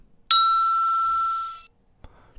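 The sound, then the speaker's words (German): A single bright doorbell ding rings out once, clear, sustaining for over a second before fading away, followed by a faint brief rustle. “Eine Klingel kann man auch vielleicht immer mal gebrauchen.”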